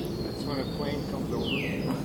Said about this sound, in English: Just recording a bird